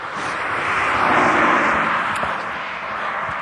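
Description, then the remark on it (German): A car drives past on a main road in the Ruhr area of Germany, its broad rushing noise swelling to a peak midway and then fading slightly as it moves away, with no talking. “Und jetzt kommt hier noch ein Auto vorbei gesegelt.”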